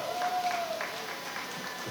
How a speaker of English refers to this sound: Some of you hateful motherfuckers ain't clapping. Start clapping, goddamn it!